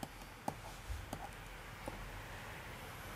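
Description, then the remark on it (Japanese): A few faint, sharp clicks and taps spaced irregularly, like a marker with faint ink tapping and scratching against a board as a person writes words for emotions, over low background hum and no talking. “何ですかペンがちょっと薄いですチョイスああ色が薄いですね、はい、見えにくいですね”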